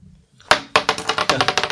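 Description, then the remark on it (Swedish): Dice rolled by players in a game clatter onto a hard surface: two sharp impacts followed by a rapid, tightening series of clicks as they tumble and settle, fairly loud, with no talking. “Så ni får slå, ni tre får slå tärning.”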